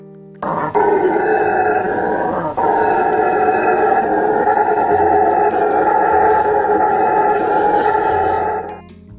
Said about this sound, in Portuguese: Inclusive, se vocês acharem é, o áudio da vocalização deles, vai ser muito legal de colocar. Então, galera, esse é o som que os bugios fazem.